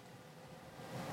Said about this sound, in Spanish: Bueno, ahí estamos escuchando el aire acondicionado que se encendió. Pero, mis amores, eso es todo lo que vas a escuchar. Ahí el auto está completamente encendido y no tenemos sonido.